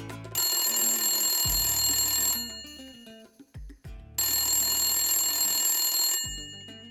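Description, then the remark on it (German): A telephone rings twice in two long, loud electronic bursts separated by a short pause, with no one speaking. “Ein spanischer Telefongespräch.”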